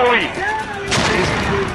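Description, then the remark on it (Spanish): Booming blasts and crackling gunfire-like bursts rumble through a busy mix, with a strong hit near the middle, over tonal voices or sounds that continue throughout. “Cuidado con esos, esos explosiones y Andrómeda embarazada.”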